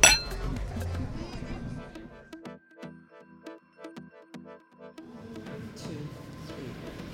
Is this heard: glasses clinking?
yes